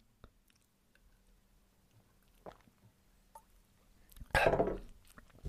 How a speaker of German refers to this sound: Also, Entschuldigung, ich muss mal kurz einen Schluck Wasser nehmen.